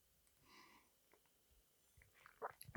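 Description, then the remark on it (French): A quiet sip of water: faint wet mouth sounds and a soft slurp, then a few sharper clicks and a swallow near the end, with no talking. “Je bois une petite gorgée d'eau.”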